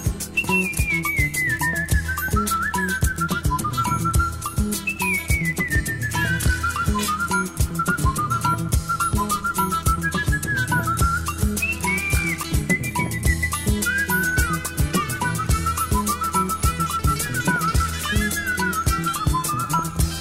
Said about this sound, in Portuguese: O som da praça vai em frente, fica só o assobio.